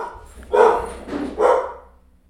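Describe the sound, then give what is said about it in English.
Dogs bark in a few loud, sharp bursts, two strong barks about a second apart with a weaker one between, then fading into quiet, as a mail carrier comes to the door to drop off a package. “The mailman was here. And the dogs freak out, but he had to come to the door to drop off a package.”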